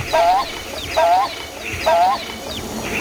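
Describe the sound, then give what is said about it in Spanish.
A toh bird (motmot), a shy bird of the American tropical forests, standing by a blue cenote, repeats its rare call three times at an even pace. Each call is a short, hoarse, slightly rising note with harmonics, clear over a soft background hum, with no one talking. “Estamos a punto de escuchar el raro canto del tímido pájaro To, una de las aves más bellas de las selvas tropicales americanas.”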